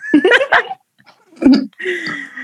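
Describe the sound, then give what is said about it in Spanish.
Female cats fighting yowl and screech in short, harsh bursts, followed by a drawn-out wailing growl. The cries come in close succession, moderately loud. “mis gatas están peleando, no sé si se escucha.”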